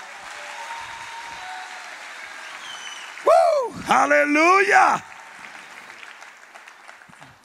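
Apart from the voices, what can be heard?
audience applause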